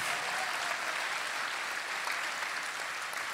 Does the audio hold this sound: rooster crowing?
no